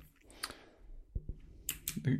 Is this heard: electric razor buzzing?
no